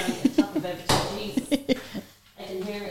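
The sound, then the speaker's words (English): A single sharp clatter of dishes rings out as a dishwasher is stopped, a brief loud crash, while a voice talks before and after it. “I'm going to stop the wash the dishwasher.”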